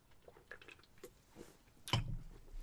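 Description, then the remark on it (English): A quiet sip of a drink: faint wet mouth clicks and a soft swallow, followed by a sharper knock and a low rumble near the end. No one speaks. “Let me just take a sip before I get into this.”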